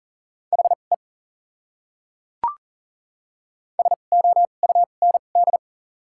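Rapid Morse code beeps at 40 words per minute with doubled character spacing, sending common English words, in a steady mid-pitched tone, two short bursts of dots and dashes separated by a pause and a faint click, with no voices.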